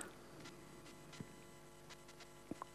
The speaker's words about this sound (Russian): Константин, вы где? Алло. Что-то у нас Помехи